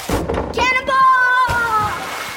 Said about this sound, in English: Okay, we can't defend you against the splash zone.